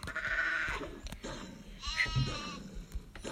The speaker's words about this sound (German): Ah, da sind Schafe,